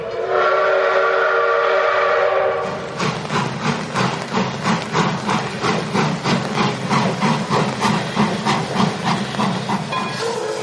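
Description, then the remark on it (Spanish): A loud, sustained train whistle blows for about two and a half seconds, then gives way to a steady, rhythmic chugging of a rolling train with hissing steam, beat after beat. “Casi te hago el sound effect, güey. Que chuchu.”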